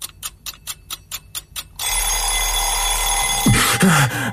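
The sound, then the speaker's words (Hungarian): An alarm clock rings in quick, evenly spaced bursts, then gives way to a continuous loud metallic jangle that keeps going without pause. Nobody speaks. “Ha ezt valóra is szeretnénk váltani, akkor ébresztő.”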